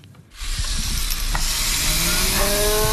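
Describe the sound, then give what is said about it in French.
A dentist's drill, used for making harpsichords and hung on an IV drip stand, whirs into life after a brief silent moment, a loud, steady, hissing high whine whose pitch creeps slightly upward as it keeps running, with no voices. “Exactement, c'est une fraise de dentiste et donc euh, accrochée à une un pied à perfusion.”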